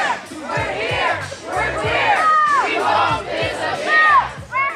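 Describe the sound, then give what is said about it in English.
A large crowd of trans young people and supporters chants in unison outdoors at a demonstration in front of the U.S. Capitol, loud and rhythmic, many voices shouting a repeated slogan ("We're here! We're queer! We won't disappear!") in steady bursts, some individual shouts rising above the group. “That is sound from Trans Prom, a demonstration held in front of the U.S. Capitol yesterday, in which more than 100 trans young people from 17 states centered and celebrated their trans joy.”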